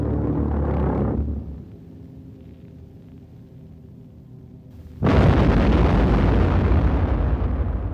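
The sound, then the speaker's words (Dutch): The low droning engine of a V1 flying bomb, a small unmanned aircraft with an explosive charge in its nose, fades to a quieter hum, then a sudden massive explosion erupts and rolls on as a loud, sustained rumble. No voices are heard. “Het was eigenlijk een klein onbemand vliegtuigje met een explosieve lading voorin.”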